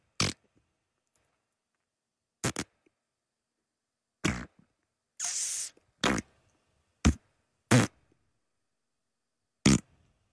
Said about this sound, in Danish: Og det er en lyd, som i, i, i meget fine kredse bliver kaldt for fissebrutter. Ej, det hedder en skedebrut.